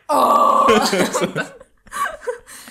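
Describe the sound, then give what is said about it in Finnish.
A voice imitates a big pike screaming as it is pulled into a boat: a loud, strained, high-pitched wail of over a second, then breaking into shorter, quieter squeaky yelps and gasps. “Siis joku, joku iso haukehan kuulostaa tämmöistä”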